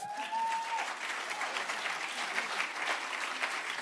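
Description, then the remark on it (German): A crowd applauds steadily, a dense wash of many hands clapping at an even level throughout, with a brief high whistle-like tone at the very start. “Gebt ihm mal einen Applaus.”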